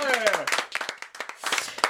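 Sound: people clapping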